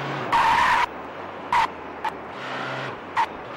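Video game truck crash: a loud tire skid screeches for about half a second, followed by three shorter squealing bursts over a steady low engine rumble, as another technician's truck is knocked out. No one speaks.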